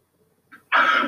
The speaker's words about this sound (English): excuse me. Bless you. Thank you.